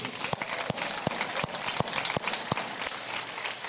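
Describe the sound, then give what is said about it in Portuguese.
An audience applauds Jesus for his work, a dense, sustained wash of clapping with sharper claps landing in a steady, even rhythm throughout, with no voices standing out. “Vamos aplaudir Jesus pela obra dele.”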